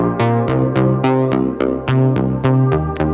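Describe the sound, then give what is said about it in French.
A dry synthesizer plays a steady sequence of plucky, harmonically rich notes, about three per second with sharp attacks and short decays, loud with no voices. “Ça c'est la version sèche.”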